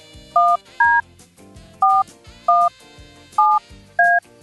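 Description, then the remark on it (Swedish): Six short, loud touch-tone beeps from a phone being dialed to call a woman who may win a seat on a plane, each a bright two-note chord, arriving in uneven pairs over a faint, low background. “Nu ska vi ringa upp en tjej som har chans att vinna en plats på planet.”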